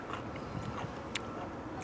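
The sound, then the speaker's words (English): Crunchy chewing of a pickle, with a couple of sharp, crisp crunches standing out over a steady, moist mastication sound. No talking. “Crunchy.”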